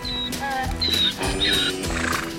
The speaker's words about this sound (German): Unser Tier macht ein seltsames Geräusch, das man Wiehern nennt.